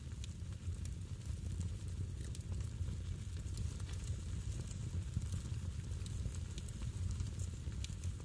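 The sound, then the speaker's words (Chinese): A campfire lit on a theater stage by cowboy performers, who add firewood to it, burns steadily, its low, rumbling roar broken by frequent sharp crackles and pops from the firewood. The sound stays fairly loud and even throughout, with no voices. “呃，牛仔们往里面添柴，我们可以听到夜晚郊外的虫鸣、木柴噼里啪啦的声音。”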